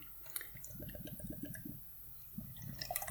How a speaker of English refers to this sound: let's open a beer real quick, guys. So we're going to open a another Lagunitas Daytime IPA.